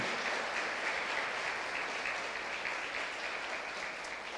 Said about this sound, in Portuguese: Só os que creem, aplauda ele aí.